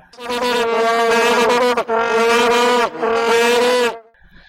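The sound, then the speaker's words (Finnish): Loud, buzzing vuvuzela horns drone in three long, steady blasts with only brief breaks between them, harsh, then fade out abruptly at the end. “heitä tähän kästi loppuun se ääristävä vuvuseela ääni.”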